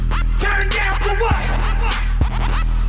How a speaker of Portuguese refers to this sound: Bom, e você já ouviu essa música aqui?